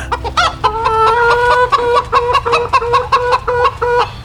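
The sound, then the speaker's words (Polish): Several chickens, brought by Sasin, cluck in a busy, overlapping chorus in a kitchen made into a henhouse, with short repeated clucks coming close together in an uneven rhythm, loud, with no talking. “a on mi tutaj Sasin wziął kury przywiózł.”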